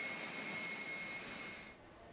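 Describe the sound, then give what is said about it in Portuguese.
An aircraft jet engine, used by authorities in a city in Siberia to disinfect the streets, roars steadily with a loud, broad rushing noise and high-pitched whine tones, then drops off sharply near the end, leaving a softer residual hiss. No one speaks. “Em uma cidade na Sibéria, as autoridades têm usado uma alternativa diferente de combate ao vírus um motor de avião para desinfetar as ruas.”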